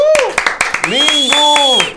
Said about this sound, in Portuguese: Palmas.